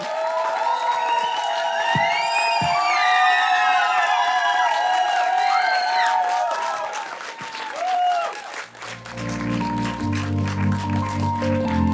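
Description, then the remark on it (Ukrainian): A crowd applauds steadily at the end of Radio Skorbota's open broadcast, for everyone who was on the stage, with many high whistles and whoops over dense clapping; after about eight seconds the cheering fades and low music comes in under the remaining applause. “Для всіх, для всіх, хто були сьогодні на цій сцені, оплески, цьомчики і обійми просто шалені.”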